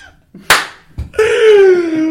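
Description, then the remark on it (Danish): A single loud, sharp hand clap rings out, followed shortly by a sustained, slowly falling vocal sound from someone. “Ej, undskyld over, fordi jeg lige klappede højt, men det var”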